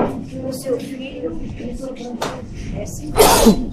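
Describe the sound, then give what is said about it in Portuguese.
Two sneezes, a short sharp one followed a second later by a louder, fuller burst, with quiet voices murmuring in the moments before. “Bem, que posas gigante só para eu espirrar duas vezes.”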